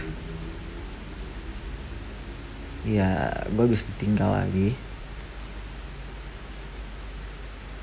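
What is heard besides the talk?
rain falling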